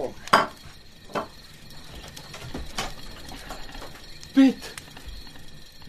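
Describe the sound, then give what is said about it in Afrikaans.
A kettle and pots clatter on a stove as someone takes the kettle off the stove, in a handful of sharp metallic knocks spaced irregularly, with quiet shuffling between them and a louder clank near the end. “Ek wil net die ketel van die stoof af haal.”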